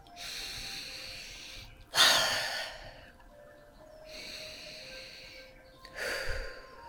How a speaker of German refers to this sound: Wir atmen auch hierfür zwei, dreimal ganz tief ein und aus.